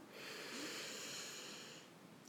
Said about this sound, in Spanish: Así que pues empezamos. Venga. Pues cogemos respiración profunda,